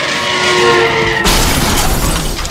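A car crash sound effect: a loud, sustained tire screech for about a second, then a sudden impact with glass shattering and debris clattering, with no voices.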